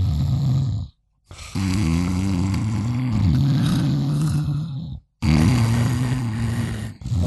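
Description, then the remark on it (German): Two voices imitate a person and a dog snoring out of phase, one inhaling as the other exhales, producing a nearly continuous rasping, buzzing drone broken by two brief silent gaps. “so phasenverschoben schnarchen, dass ja. im Prinzip immer, wenn der Hund aus, äh, einatmet, nee, doch ausatmet, ich gerade einatme”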